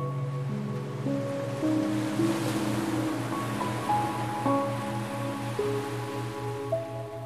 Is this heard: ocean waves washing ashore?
yes